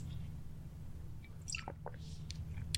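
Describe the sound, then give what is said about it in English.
Someone sips and swallows water, with a few soft wet gulps and mouth clicks over a steady low hum, and no talking. “sorry, a bit of water here.”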